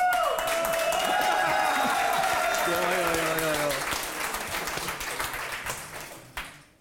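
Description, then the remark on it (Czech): An audience breaks into loud, sustained applause, with a few voices shouting over the clapping, before it gradually thins out and fades over the last couple of seconds. “Ne, tady se tleská výhradně nacismu dneska, ničemu jinému, ty vole.”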